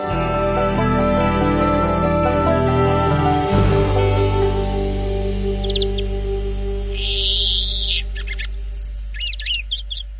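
Greenfinches sing in quick, high-pitched chirps and bright trills that surface over a steady, humming tonal background and grow busier toward the end.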